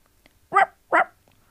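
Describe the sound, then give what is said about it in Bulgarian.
A puppy gives two quick, bright, cheerful barks in succession, fairly loud, with nothing else sounding around them. “Изджавка радостно то през следващата врата.”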